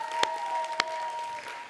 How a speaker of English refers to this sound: I've been so grateful, and you guys have been an awesome group. Why don't you guys give yourselves a round of applause? Yeah.